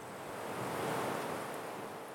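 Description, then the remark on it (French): A strong wind roars steadily over a wheat field, whipping the ears of wheat about, swelling into a louder gust midway before easing slightly, a dense rushing noise with no voices. “le vent redoubla de violence, emportant avec lui les épis de blé qui virevoltèrent dans tous les sens, griffant les jumeaux au visage et les obligeant à se mettre à l'abri dans la ruine.”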